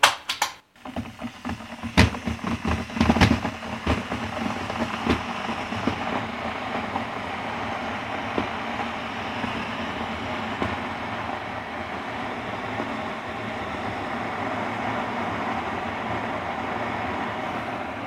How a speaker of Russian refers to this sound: Да, это звуки кипящего чайника.